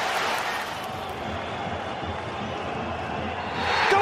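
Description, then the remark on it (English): A huge stadium crowd roars continuously in a dense wall of cheering as Will Grigg scores for Wigan Athletic against Manchester City in the FA Cup, the noise holding steady and then swelling even louder toward the end. “Well, this place is absolutely erupted”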